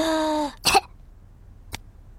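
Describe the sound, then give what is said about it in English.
A child playing doctors and nurses, having their chest listened to, takes a short voiced intake of breath followed by one sharp cough, then a faint click in otherwise quiet surroundings. “Now, …, take a big breath in, then cough.”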